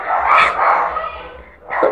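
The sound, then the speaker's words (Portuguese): Dogs bark and yelp in a loud, excited cluster, then go briefly quiet before another sharp bark near the end. “Na minha convicção, com os meus cachorros ainda gritando no fundo”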